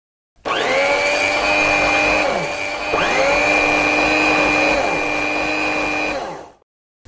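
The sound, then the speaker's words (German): An electric hand mixer whirs steadily for about six seconds, with its motor pitch dipping briefly around the midpoint before spinning back up, then cutting off abruptly. No one speaks. “Und dann meinen Rührmix angeworfen.”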